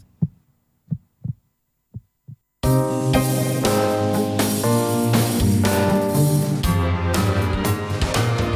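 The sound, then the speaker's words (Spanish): A few deep, muffled heartbeat thumps sound alone in near silence, paired like lub-dub, before loud, full music suddenly bursts in and carries on to the end. “En la onda local, sigue con nosotros el ritmo creciente de los latidos del territorio andaluz.”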